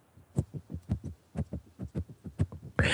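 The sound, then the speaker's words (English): A young girl in pajamas unsuccessfully tries to open a box of Lucky Charms cereal at 3:17 a.m.: a steady run of soft, muffled thumps and crinkles in an uneven rhythm, ending in a sudden louder rustle. “my daughter in her jammies unsuccessfully trying to open the lucky charms”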